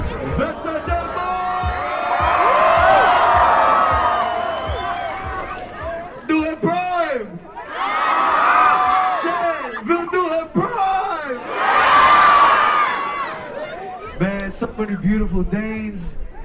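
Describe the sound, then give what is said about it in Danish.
An excited crowd of KSI and Logan Paul fans cheers and shouts in repeated loud surges as Prime is thrown out to them and they follow the bus, with high whoops and screams rising over dense babble, then dropping back to scattered voices between the bursts. “Folk, folk er stoked. Øj, kaster, kaster Prime ud over. Og folk, de følger med bussen nu.”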